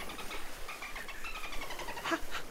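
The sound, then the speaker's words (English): A dolphin clicks in rapid, steady bursts that run throughout, with a short high whistle cutting in near the end. The sound is fairly quiet and heard alone, with no voices. “What's that strange clicking noise you're making?”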